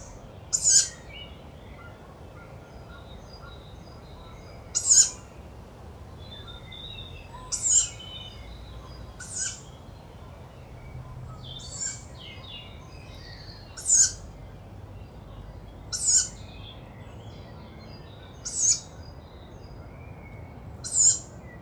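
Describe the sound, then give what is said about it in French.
Two young tawny owls give repeated hissing begging calls to the adults to be fed: short wheezy bursts every couple of seconds, sometimes overlapping as the two birds alternate, against a quiet night background with no talking. “Il y a maintenant deux jeunes qui se, répondent, enfin qui plutôt appellent les adultes pour se faire nourrir.”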